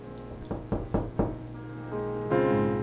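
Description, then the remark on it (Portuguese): Four firm knocks on a wooden door by a small boy returning home after a storm, in quick, even succession and clear, followed by a low sustained tonal hum with no voices. “Alguém bateu na porta.”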